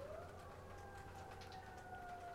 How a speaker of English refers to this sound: I hope that you can hear those sirens in the back because that is perfect.